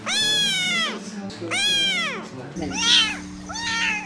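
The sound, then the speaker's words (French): A person mimics tiny cat meows: four thin, whiny, rising-and-falling mews in a row, over a faint steady hum. “J'entends des, tout petits des tout petits miaulements, là”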